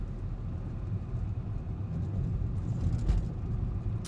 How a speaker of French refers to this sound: Ah, alors, camion de pompier, qu'est-ce qu'il passé